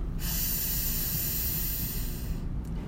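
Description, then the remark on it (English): A long, steady deep breath drawn in through the nose or mouth during a breathing exercise, extending the belly, a breathy hiss that holds for a couple of seconds before cutting off, with no talking. “So just take a deep breath in”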